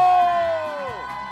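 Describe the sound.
A loud, sustained shout rises from a live audience at Market Square in San Antonio, a high held cry that slides downward in pitch near the end amid cheering voices.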